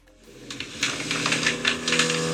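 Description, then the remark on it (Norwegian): A sliding door slowly grinding open, something apparently stuck in its track, with a rough, rasping rattle over a low, groaning drone that grows louder across about two seconds; no voices. “Er det skivedøra di, sa? Altså? Ja. Som åpnes veldig sakte.”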